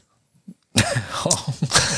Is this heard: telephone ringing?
no